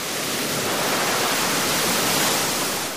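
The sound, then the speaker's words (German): A large 2-metre wave, which comes every few minutes, surges through a wave pool with a loud, steady roar of rushing water that holds for about three seconds before easing slightly at the end. No voices. “Alle paar Minuten kommt eine 2 Meter Riesenwelle.”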